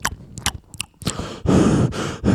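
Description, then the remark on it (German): A voice imitates a meeting participant who forgot to mute, munching a cookie with a few quick crunchy, smacking bites, then giving loud, heavy breaths in long noisy huffs, as if laboring hard, like climbing stairs. No words are spoken. “Und dann hat er angefangen, den Keks zu essen und dann so.”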